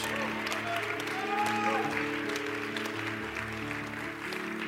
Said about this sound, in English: And now, Pearl Church, I need you to shout and clap your hands. Come on, and tell Jesus you love him this morning.